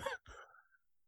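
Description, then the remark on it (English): A single loud sneeze: a sharp breathy intake-like burst, a brief break, then a forceful explosive release that trails off, with no talking. “oh god, bless you.”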